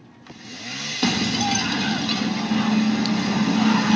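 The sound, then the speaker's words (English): A chainsaw kicks into a loud, steady buzzing roar after a brief quieter moment, its engine droning continuously until the end. “yo, the chainsaw's on fire.”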